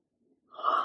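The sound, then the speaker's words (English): A single sharp sneeze bursts out after a brief quiet breathy lead-in, loud and airy, cutting off abruptly at the end. “God bless you.”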